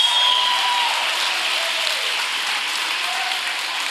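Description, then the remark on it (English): A large crowd claps and cheers steadily after being asked to make noise if they believe in the power of Jesus Christ, a dense wash of applause with scattered shouts and whistles rising above it, sustained and loud throughout. “And if you believe in his power, make some noise in this place.”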